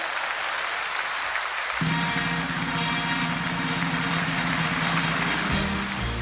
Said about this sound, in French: Le président de la République de Corée, Roh tae et son épouse sont applaudis par 100 000 spectateurs.